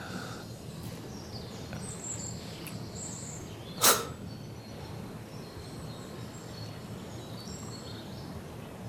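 Scattered high bird chirps and short song phrases from birds busy building their nests, over a steady outdoor hum, with one sharp, loud bang midway, like a construction knock from human building work in the background. No voices.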